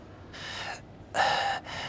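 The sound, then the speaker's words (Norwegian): Three ragged, labored gasping breaths, fairly loud, the middle one the harshest, as if from an injured man in hospital struggling for air and getting help to breathe; it sounds like a person performing the breathing. “Han uh, han får litt hjelp med å, å få puste og sånn, men han klarer å få ut noen ord.”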